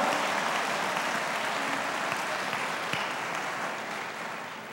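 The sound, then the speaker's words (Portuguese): Sustained applause from a large audience applauding God in a church service, a dense, steady wash of many hands clapping that holds its loudness for several seconds before easing off slightly toward the end, with no voices standing out. “Quem quer ser usado por Deus, aplauda Ele bem forte.”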